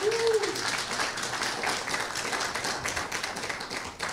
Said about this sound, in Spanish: Den un aplauso si le va a dar al Señor.